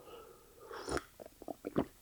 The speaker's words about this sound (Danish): Øh, det er måske godt nok lige to sekunder, jeg tager lige en slurk af min.